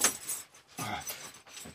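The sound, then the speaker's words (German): Keys jangle and clink in a few short, uneven bursts as someone fumbles with a key, unable to grip it properly, trying to open a door. The rattling is fairly soft, with brief pauses between handfuls, and no one speaks. “Ich krieg den Schlüssel nicht richtig zu fassen.”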